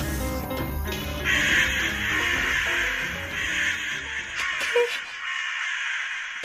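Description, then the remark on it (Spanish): Several crows caw harshly and repeatedly, fighting over carrion in the street, their rough calls overlapping in a noisy squabble, then the racket thins out and fades toward the end. “Tranquilícese, son solo unos cuervos peleándose por unas carroñas en la calle.”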